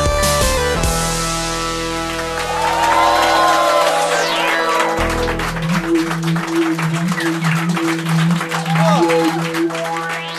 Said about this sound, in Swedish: Wow, vilket jubel! Ja, det var publikens eh, stående ovation, eller på att säga. Ja. det, var, det var en härlig stämning den kvällen. Ja, verkligen. Lite såhär afterski-känsla, fast med... det passar ju bra med coverbandet.